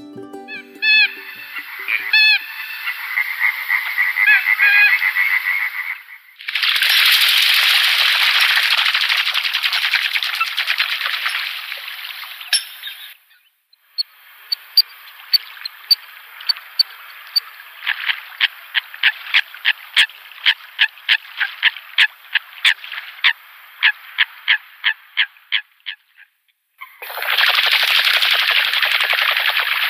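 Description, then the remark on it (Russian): Eurasian coot calls ring out loud with no talking: harsh, sharp bursts alternating with rapid rattling series of clipped notes, some stretches long and continuous, others stuttering. “Вот, но при этом звуки лысухи мы их можем послушать.”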